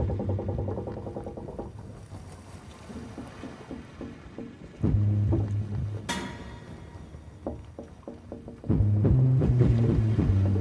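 A sailing ship rocking on the waves of the wide sea, with a steady low rumble and drawn-out creaking, groaning tones swelling in two louder surges. The sound is continuous, and no one speaks.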